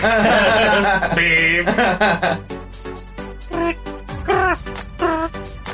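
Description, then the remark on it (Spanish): A person tries to imitate a cricket's chirp with their voice, producing a string of squeaky, strained vocal bursts of varying pitch, fairly loud, with a chuckle mixed in. “Sonido de grillo. No me sale bien.”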